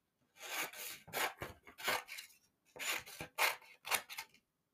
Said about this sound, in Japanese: あ、今ですか今、このハサミを使って、